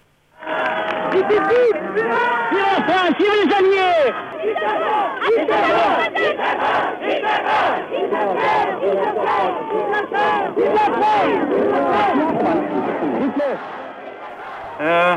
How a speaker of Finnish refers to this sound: Näyte on pelkkää ääntä Pariisin valtauksesta. Siinä kuuluu huutoja Vive de Gaulle – ynnä muuta, mutta lähinnä tuommoista ilon kiljuntaa Pariisin valtauksen johdosta.